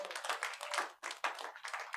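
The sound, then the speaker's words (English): A church audience clapping for the Lord Jesus together in a dense, steady burst of applause, with rapid overlapping claps in rhythmic surges, briefly dipping once before picking back up. “Clap for the Lord Jesus.”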